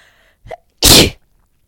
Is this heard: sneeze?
yes